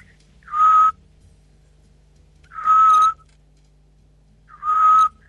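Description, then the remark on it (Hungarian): A Eurasian scops owl gives three short, clear whistled hoots at the same mid-high pitch, each about half a second long and spaced roughly two seconds apart, over a faint steady hum. “ez a füles kuviknak a hangja.”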